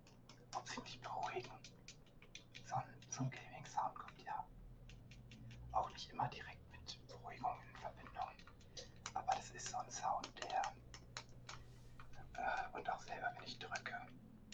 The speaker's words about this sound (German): Und einfach, wenn ich weiß, okay, da drückt jetzt jemand auf den Controller oder ich mache das.